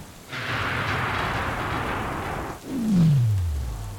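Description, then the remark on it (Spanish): A sudden, very close thunderclap from a lightning strike during a storm bursts into a sustained crackling roar, then breaks into a deep rumble that slides downward and rolls out low and heavy. “Se escucha demasiado cerca el estruendo poderoso del rayo, que ahora sí despertó a la chica.”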